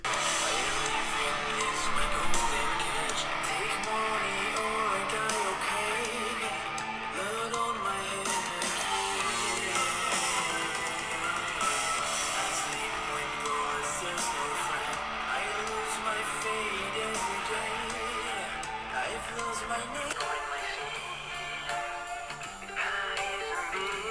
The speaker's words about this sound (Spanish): Entonces escuchemos esta canción que me ha llamado la atención